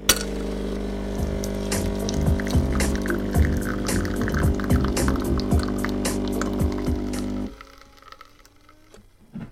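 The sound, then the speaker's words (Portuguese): Coffee for drinking on the rocks pours steadily into a cup for about seven seconds over a low, continuous hum, then cuts off abruptly, leaving a quiet tail. No one speaks. “Vou aqui servir o meu cafezinho estou a beber um café on the rocks.”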